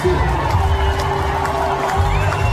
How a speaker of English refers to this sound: Listen to those cheers.